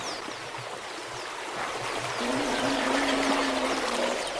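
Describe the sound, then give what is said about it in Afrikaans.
A full river, flowing bank to bank, rushes steadily past, its broad, constant roar of flowing water filling the scene, with a faint low hum surfacing partway through. “Gisteraan kom daai by en kyk hoe loop hierdie rivier nou kant aan wal.”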